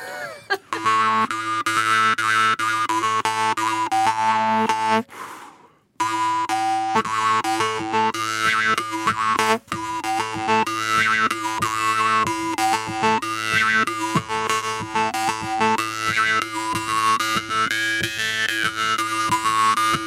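A jaw harp played solo with a steady low drone and twanging, shifting overtones that wah and warble rhythmically, loud and continuous apart from one brief pause partway through.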